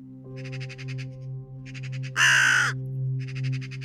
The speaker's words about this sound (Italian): Il gracchiare dei tre corvi accompagna la tua uscita dal giardino e poi dal centro Emerson. Un gracchiare che ti rimane nelle orecchie, come un presagio.